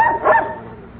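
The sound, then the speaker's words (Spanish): A dog lets out a single sharp bark that rings briefly and fades, with no one speaking over it. “Le está ladrando el perro.”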